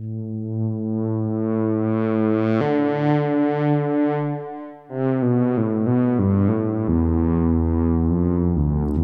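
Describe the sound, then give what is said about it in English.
A buzzy, sustained synthesizer pad from a Diva plugin preset with delay and modulation, holding long chords that shift every couple of seconds, steady and fairly loud, with no voices and little audible echo. “you can't really tell a delay on a long Yeah. pad.”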